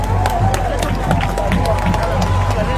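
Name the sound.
audience applause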